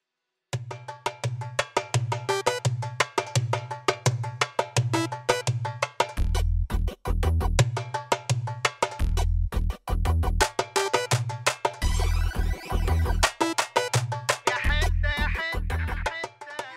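A steady, loud percussion groove with repeated sharp hits over a pulsing bass line, joined by bright tonal accents and occasional deeper drum bursts, playing continuously with no voices.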